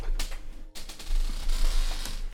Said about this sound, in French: Ah, désolé pour les bruits de, de grincement.